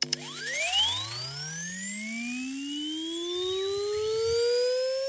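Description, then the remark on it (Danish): A synthetic blower sound from a phone blowing app, imagined as running at 40,000 rpm, used to blow out a lighter flame: an electronic whine that sweeps steadily upward in pitch like a fan spinning up, layered with bright overtones, holding strong for about five seconds without talk. “Og vil nu tænde mit, øh, min blower.”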